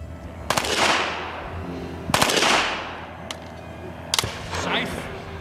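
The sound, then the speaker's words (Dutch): Loud rifle volleys from an SS firing squad of five crack out in clustered bursts in the morning at the edge of a forest near Kamp Amersfoort, each followed by a rumbling, echoing tail, then a few sharper single shots, with a low background murmur throughout. “Het is stil in het bos, maar de vredige stilte wordt ruw onderbroken door geweersalvo's.”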